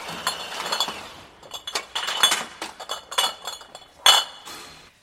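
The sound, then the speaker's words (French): Glass bottles clink and rattle against each other in a bottle-washing machine for returnable glass in the Drôme, France; loaded bottles are drawn into the machine for a wash of about 15 minutes. A busy run of bright, ringing knocks with a sharp louder clank near the end; no voices. “les bouteilles sont chargées. Une fois qu'elles sont chargées, elles sont absorbées par la machine”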